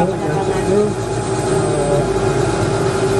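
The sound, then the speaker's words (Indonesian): A helicopter engine in flight drones loudly and steadily throughout, a dense low rumble with a constant humming whine layered on top and no breaks in the noise, during a passenger's first helicopter ride over Bali. “Nah, gimana tadi Bapak uh, pesannya atau rasanya nih naik helikopter mungkin yang pertama kali atau udah beberapa kali Pak?”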